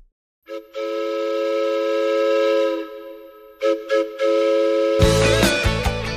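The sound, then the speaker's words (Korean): A steam train whistle sound effect for the KBS radio Chuseok special trot train program blows a long, loud harmonic blast, pauses, then gives two short toots before a dense burst of chugging, hissing train noise rushes in at the end. “김혜영과 함께 추석 특집 트로트 열차 노래 선물 싣고 애청자 여러분 곁으로 달려갑니다. 뿌뿌!”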